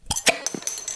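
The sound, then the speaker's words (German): Glass bottles clink together in a toast: a few quick, bright knocks with a high ringing tone, followed by softer rattling taps. No one speaks. “Sehr gut. Prösterchen. Prost.”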